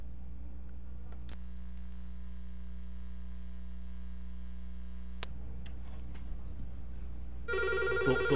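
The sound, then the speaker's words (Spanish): A jingle for a phone-in poll segment: a steady electronic tone holds for a few seconds, then bright, ringing jingle music bursts in near the end, with no talking. “Pues mira, súbeme, la musiquita de, del sondeíto, súbela, súbela ahí.”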